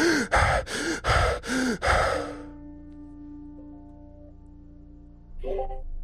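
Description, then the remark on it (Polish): Rapid, heavy panting from a person who is feverish, sweaty and unresponsive: five loud, rhythmic gasping breaths in about two seconds, then near silence with a faint hum, and one more short breath at the end. “Oddycha, dyszy wręcz, bardzo, bardzo szybko.”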